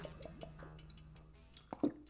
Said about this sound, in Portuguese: Tomando minha água ao vivaço.